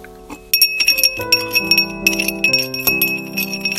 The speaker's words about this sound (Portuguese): Para me provar, bateu com a colher várias vezes no fundo do copo. Recomeçou a mexer metodicamente a beberagem com uma energia redobrada, voltas e mais voltas sem descanso, e o ruído da colher na porta do vidro.